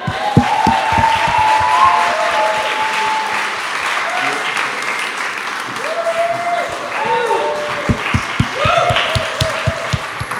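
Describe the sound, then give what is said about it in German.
Sustained applause from a large audience welcoming children from Kids World onto a stage, dense clapping for several seconds, with some cheering and raised voices mixed in. “Und ähm, ja, gebt uns doch einen kräftigen Applaus und äh, begrüßt mit mir”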